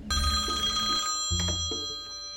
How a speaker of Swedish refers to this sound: Min telefon började ringa.